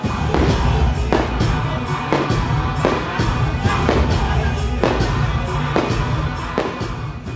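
A rapid series of bright festive fireworks bursting at the 31st international folk music festival "Zvenyat tsimbaly i garmonik", loud booms and crackles arriving every half second or so over a constant wash of crowd noise outdoors.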